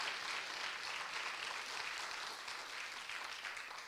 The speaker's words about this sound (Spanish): Sí, denle un aplauso al Señor.